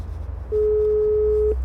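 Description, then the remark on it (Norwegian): A door intercom at the entrance of Solvang health home in Oslo gives one steady electronic tone lasting about a second, clear, over a low outdoor rumble. “står foran Solvang helsehus og ringer på.”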